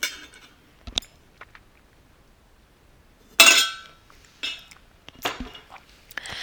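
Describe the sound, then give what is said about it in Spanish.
Someone drinks water from a bottle: light clinks and handling knocks, a louder burst of plastic or glass rustle midway, then a few short swallowing sounds and taps, with no talking. “Realmente ya me dio sed de decir agua.”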